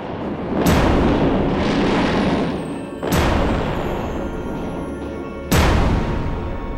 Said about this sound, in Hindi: फिर क्या था शेख भिखारी ने भी प्रत्युत्तर में तोपों से हमला बोल दिया